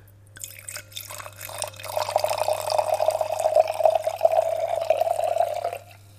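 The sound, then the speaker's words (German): Wine, a deep quince-orange, almost orange wine made in an amphora, pours steadily into a glass for several seconds, a bright gurgling stream that rises in pitch slightly before stopping abruptly; no one speaks. “Willst du mal einschenken?”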